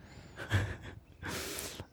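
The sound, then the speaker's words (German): A person imitates snoring with two drawn-out, rasping breaths, a loud snorting inhale followed by a longer breathy exhale, close to the microphone with no talking. “Ich schnarche das, ja auch auf vielleicht, Bayerisch.”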